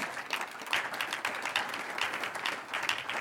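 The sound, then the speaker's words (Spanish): An audience applauds for the Lord during a sermon, many hands clapping together in a dense, sustained patter for a few seconds without any talking. “Un aplauso al Señor.”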